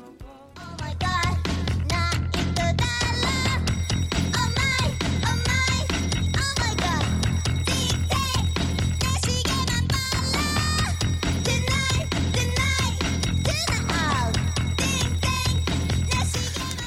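An indie band song plays loud and steady after a brief quiet opening, with driving drums, bass and guitars under a melodic sung vocal line throughout.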